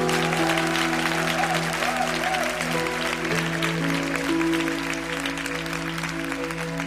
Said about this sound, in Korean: 다시 한번 큰 영광의 박수를 드렸으면 좋겠습니다.